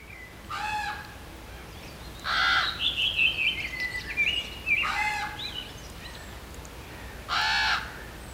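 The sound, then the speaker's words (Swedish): Several loud, harsh calls from adult common ravens ring out at intervals in Geta, northern Åland, with unusual croaking and gurgling notes, while blackbirds and redwings sing faintly in the background outdoors. “idag meddelade han att han såg att det var korparna som lät på ett sätt som var helt nytt för honom.”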